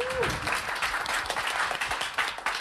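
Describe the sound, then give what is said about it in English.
A round of applause: dense, rapid clapping from a group that holds steady and fairly loud for a few seconds, with a brief tone sounding at the very start. “I think a round of applause for Amy there.”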